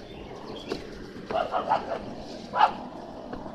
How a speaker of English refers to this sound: That's the dog in the condenser you probably hear if you're you're all high definite or whatever. My Shih Tzu's chasing the boxer.